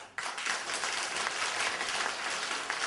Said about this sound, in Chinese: 听懂的，掌声告诉我。